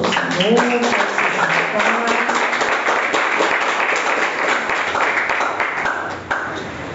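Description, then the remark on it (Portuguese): A large audience applauds steadily for several seconds after a prayer, dense clapping with scattered voices and cheers mixed in before it starts to thin out at the end. “Aplauda”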